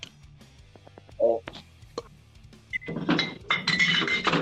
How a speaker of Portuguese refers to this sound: Não, eu tô abrindo uma cerveja. O cara tá transportando engradado, velho.